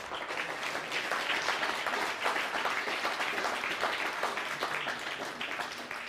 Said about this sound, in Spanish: Así que denle un fuerte aplauso al bendito sea por esto.